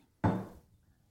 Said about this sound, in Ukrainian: Щось стукнуло. До сусіди. То, то, я під столом ногою.